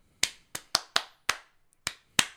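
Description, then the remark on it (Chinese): A short round of clapping: seven sharp, bright claps in an uneven rhythm, fairly quick with a brief pause partway through, and no voices. “给自己掌声鼓励鼓励。”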